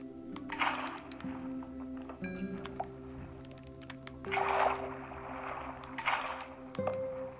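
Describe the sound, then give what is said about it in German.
Several short, splashy whooshes of water being placed in a video game, with three main bursts over a steady low game hum and scattered clicks, moderately loud. “Falls jetzt jemand denkt, warum platziert der Wasser?”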